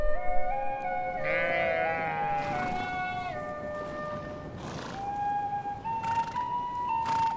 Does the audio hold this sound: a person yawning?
no